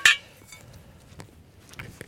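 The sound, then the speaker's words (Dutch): Parts of a metal Edelman soil auger clink together, starting with one sharp, bright clank and followed by a few lighter, scattered knocks as they are handled, with no voices. “Even kijken. Deze hebben we nodig de edelmanboor.”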